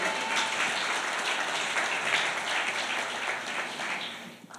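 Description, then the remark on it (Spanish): A crowd applauds steadily for several seconds, a dense, even wash of clapping that stays fairly loud throughout before tapering off slightly at the end. “Aplauda, aplauda.”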